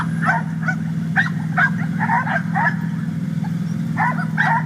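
Several excited dogs riding a small train of eight carriages, one dog in each, bark and yip in rapid, overlapping bursts over a steady low rumble, with a brief pause before the barking picks up again.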